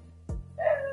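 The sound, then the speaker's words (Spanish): A dog gives a short bark followed by a drawn-out, higher-pitched yelp, moderately loud, with no one speaking. “Otra noticia, perdón por el perro ladrando”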